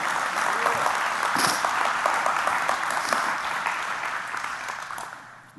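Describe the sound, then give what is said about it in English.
A church audience claps their hands together in a sustained, dense burst of applause that fills the room, steady for several seconds before tapering off slightly at the end. “Everybody in this church ought to clap their hands to that and declare it.”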